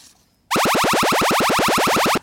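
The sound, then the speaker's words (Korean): An alien laser attack sound effect, hidden in a song on a radio show for listeners to find: a rapid burst of about fifteen bright, descending zaps, each sweeping down in pitch, firing loud and steady for under two seconds before cutting off sharply. “예, 외계인이 지금 레이저 공격하는 소리입니다.”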